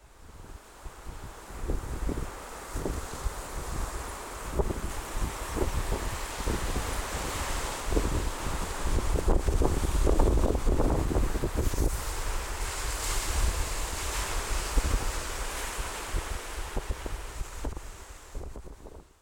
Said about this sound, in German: auch nicht schlecht, aber ich dachte, Meeresrauschen ist vielleicht äh, gerade ein bisschen entspannender. Hört euch das mal an.